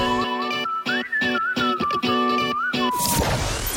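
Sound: whistled melody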